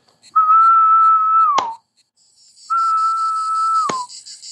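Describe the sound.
A person imitates a male cicada call with two long, steady whistled tones, each cut off by a single sharp hand clap standing in for the female's answering wing flick, loud, with a short pause between them.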